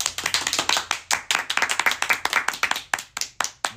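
An audience at the rakugo show Sanyutei Mankitsu no Mankyaku Manrai claps steadily, a dense run of sharp, bright hand claps overlapping in a fairly loud, continuous patter for a few seconds with no one speaking.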